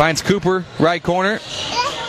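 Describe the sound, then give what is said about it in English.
An adult commentates a basketball game clearly while his young son, commentating along, chatters faintly in a higher, softer voice in the background, most noticeable toward the end. “If you can hear in the background, got my son commentating with me.”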